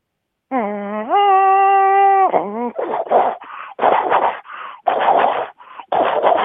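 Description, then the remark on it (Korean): A voice imitates a subway train motor running and speeding up: a steady whine stepping up in pitch, followed by a series of rapid, breathy bursts that pulse with a quickening rhythm, loud. “아, 저는 이제 지하철 이제 계속 이제 구동 소리요, 지하철.”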